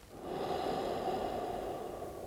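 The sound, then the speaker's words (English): A slow, deep breath in a three-dimensional breathing exercise, an exhalation down the length to the base of the spine and then an inhalation: one long airy rush of air that swells quickly and holds steady, with no talking. “That's an exhalation right down the length to the base of the spine, and then an inhalation.”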